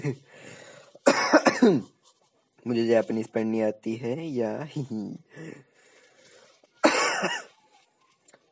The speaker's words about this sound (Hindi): खांसी में आधा टाइम निकल जाएगा हम्म, हम्म।